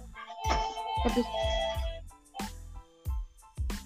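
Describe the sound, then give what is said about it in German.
A phone rings with a melodic electronic ringtone: bright repeated notes over punchy low thumps in a steady beat, fairly loud, with no one talking. “Telefon klingelt.”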